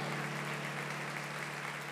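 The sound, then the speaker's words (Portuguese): An audience applauding Jesus together, a steady, dense wash of clapping that fills the whole two seconds at an even loudness, with a faint low hum underneath and no voices. “Olha aplaudir Jesus, porque Ele é digno de glória.”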